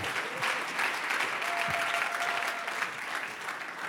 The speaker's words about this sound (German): Also lass uns ihn mal ehren mit einem ganz herzlichen Applaus in unserer Mitte.